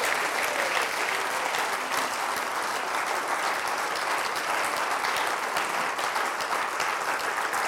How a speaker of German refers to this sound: Lass uns mal Gott irgendwie einen Applaus geben. Danke, Jesus.